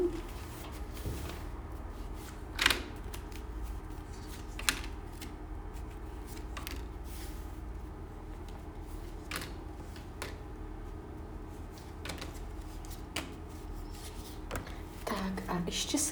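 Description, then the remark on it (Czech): Soft papery clicks and brushing sounds of cards being shuffled and laid out for a card reading, irregular and fairly quiet, with a few sharper snaps over a low steady hum. “Já to vyhodím zrovna ty karty, ať to můžeme pěkně porovnávat.”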